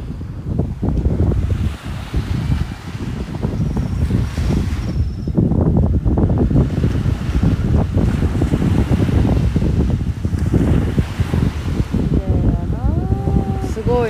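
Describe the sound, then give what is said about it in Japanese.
Steady, loud wind buffets the microphone while ocean waves wash continuously onto the shore, with a brief faint voice-like tone near the end. “風と波の音をお楽しみください。”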